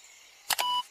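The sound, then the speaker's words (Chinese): The sound cue of the mischievous fox character, who is trying to grab the key: two quick, sharp clicks followed by a short, steady, high electronic tone, heard on its own with no talking. “哦不，是捣蛋鬼狐狸的声音，他一定是想抢这把钥匙。”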